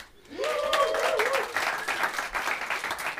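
An audience bursts into sustained applause, many hands clapping in a dense, steady roar that swells quickly and holds at a fairly loud level, with a brief cheering voice near the start.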